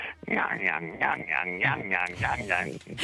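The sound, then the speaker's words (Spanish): A voice imitates the creaking of cart wheels, a loud run of rhythmic, squealing groans repeating about eight times in quick, steady succession. “se oían las ruedas de de los carros eh, que se decía allí que rinchaban.”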